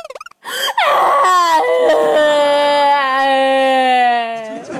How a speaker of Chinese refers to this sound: 完路过河边，iPhone 就掉河里吧。啊，于是啊就坐在河边伤心的哭了起来。